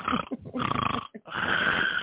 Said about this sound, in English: he was snoring.